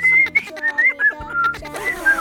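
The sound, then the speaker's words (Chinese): Someone whistles a short, wavering tune, a bright pitched line that slides up and down across a couple of seconds, with faint low background noise and no talking. “他一边洗顾客的衣服，一边吹口哨。那不是，小妹这种才是。”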